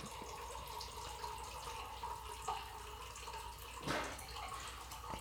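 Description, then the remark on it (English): Steady running water pours into a bottle, filling it all the way up, a continuous rushing stream with a rising, filling tone and a brief louder splash near the end. “And you have to fill it all the way up.”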